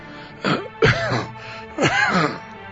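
A person coughs twice: rough, throaty bursts with a clearing, gravelly edge, spaced by a short pause, fairly loud against a quiet background with no talking.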